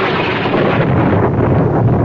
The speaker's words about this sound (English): Oh, it's quite a storm.